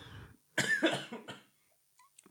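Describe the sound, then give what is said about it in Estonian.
A short burst of harsh coughing, two or three rough hacks in quick succession, after the gas of a Schweppes drink went down the wrong way, followed by a faint wheezy breath and a couple of small throat sounds. “see gaas seal sees läks minu kopsudesse. Läks kurku?”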